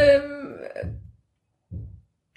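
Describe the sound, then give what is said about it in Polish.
A short mechanical whine from nearby renovation work, followed by two dull, muffled knocks spaced about a second apart, moderately loud against a quiet room. “wokół nas nadal trwa remont, mimo że jest weekend”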